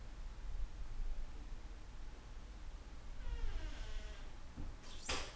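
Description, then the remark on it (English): A door in a house creaks with a long, scraping groan, then shuts with a sharp, loud knock, with no talking, over a steady low background rumble. “Maybe the loudest door in the house.”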